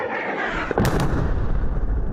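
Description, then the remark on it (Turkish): Heavy explosions from Russian military helicopters bombing Wagner-controlled targets rumble through dense low-end noise, with a sharp blast and a quick second crack near the start, then a continuous loud roar of booming detonations with no talking. “Rus askeri helikopterlerinin Wagner tarafından kontrol edilen hedefleri bombaladığı görüntüler paylaşıldı.”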